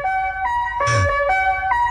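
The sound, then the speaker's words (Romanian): A Tesla's low-speed pedestrian warning sound, played at speeds below 30 km/h: steady, loud electronic tones shifting between a few pitches like a siren, with a short, rougher burst and low rumble in the middle. No talking. “Astea se înregistră de la o Tesla cineva. Care face așa la viteze sub 30.”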